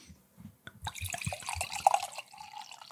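Wine poured into a glass: a burst of gurgling glugs from the bottle gives way to a steadier splashing trickle that fills the glass. There's no talking.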